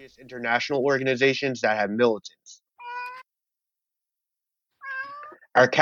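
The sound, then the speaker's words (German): A person speaks briefly during an interview, then Shisha the cat meows twice, with short, clear, moderately loud cries separated by a quiet pause of a couple of seconds before talking resumes. “meine Katze Shisha möchte am Interview mitmachen.”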